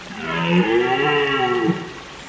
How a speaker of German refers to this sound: Und in der Ferne der Brumpfschrei eines Hirschs.